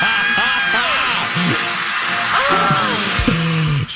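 A big concert crowd cheers wildly as the singer comes out on stage, a dense roar of screams and whoops with rising and falling shouted yells on top, steady and loud throughout the whole stretch.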